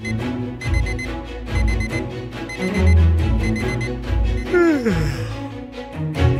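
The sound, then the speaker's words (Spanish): An alarm clock rings in short repeated bursts at a steady rhythm, loud, over a backing of music, with a descending swooping sound near the end. “Suena el despertador de los agentes sociales.”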